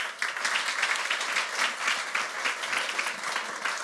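A crowd claps steadily for several seconds, a dense, continuous wash of many hands at moderate volume, with no clear voices standing out, as an audience gives a woman invited forward a big round of applause.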